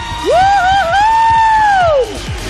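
A crowd cheers and claps, with one loud, sustained high whoop rising, holding for about two seconds, then falling away over a steady bed of applause.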